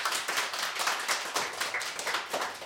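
An audience claps for a pianist about to play on the radio program Radio Total Normal, a dense steady patter of many hands at a fairly even loudness throughout, with no voices over it.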